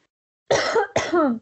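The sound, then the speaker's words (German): Two loud coughs in quick succession, each a sharp harsh burst with a slightly throaty, rough tail, with no talking. “So, ich huste.”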